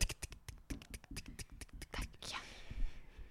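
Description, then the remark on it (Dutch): A voice imitates a small critter scuttling across a laminate floor in the dark: a quick, uneven run of dry clicking taps for about two seconds, then a soft breathy hiss fading out. “En ik wist dat die er zat en je hoorde die op die laminaat zo...”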